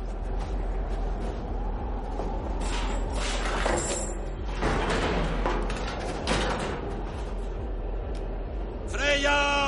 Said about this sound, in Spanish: En el exterior, Michael e Ingrid encuentran la mina apartan unas placas que cubren la puerta.